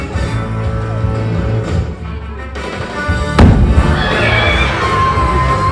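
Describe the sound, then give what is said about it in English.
A balloon filled with just hydrogen, the first of several, ignites with one loud, low, booming bang that cuts through steady crowd murmur, followed by children shouting and cheering excitedly. “Fingers in ears, everybody. Okay, balloon number one, just hydrogen.”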